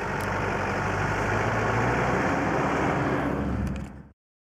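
vehicle, car engine running

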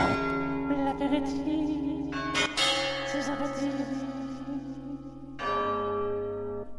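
signal or alarm, village church bell ringing

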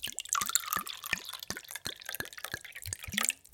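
sound effect, liquid pouring

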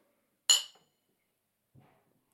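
household object, glasses clinking

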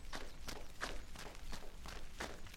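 sound effect, running footsteps

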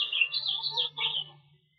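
bird, small birds chirping

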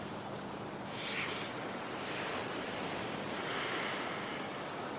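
nature, ocean waves

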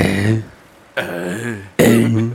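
human body sound, burp

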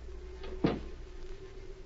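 household object, door being closed

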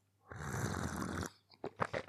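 food or drink, sipping tea

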